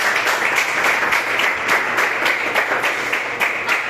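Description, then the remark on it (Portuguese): A large crowd applauds for Jesus steadily, many hands clapping in a dense, continuous wash of sound that fills the space without pause, fairly loud. “Você pode aplaudir a Jesus?”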